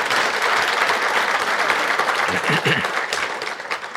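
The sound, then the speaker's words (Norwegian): An audience claps steadily throughout, a dense, continuous wash of many hands with no breaks, staying loud for the whole stretch before thinning slightly near the end. “Da er lov med applaus igjen, da.”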